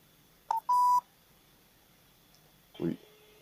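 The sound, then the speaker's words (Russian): A couple of short, clear telephone keypad tones beep in quick succession as a telephone number is dialed to call a State Duma deputy's public reception office, followed by quiet and a brief muffled voice-like sound. “Так, звоним.”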